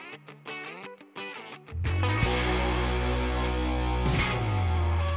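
A music track begins with a sparse, choppy melodic phrase, then loud distorted guitar chords and a driving low end kick in and sustain at full volume; no talking.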